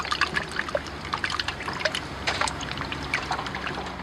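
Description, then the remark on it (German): Men carefully tip buckets of eels into a river at the riverbank to release them; water pours and splashes steadily, a continuous trickling and sloshing with small irregular splashes as the eels leap in, no voices. “Eimer um Eimer schleppen die Männer an das Flussufer, kippen die Eimer vorsichtig an und die Aale springen geradezu in den Fluss.”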